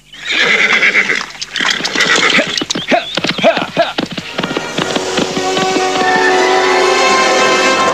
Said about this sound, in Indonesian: Ki Waris segera mengendalikan kudanya dengan kencang, meninggalkan pesanggrahan kerapian.